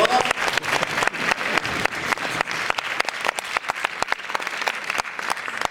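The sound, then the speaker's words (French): An audience applauds steadily at a trophy presentation while photographers take pictures, many hands clapping in a dense, crackling wash with sharp individual claps standing out, sustained at an even level throughout without any talking. “Quelques applaudissements, vous”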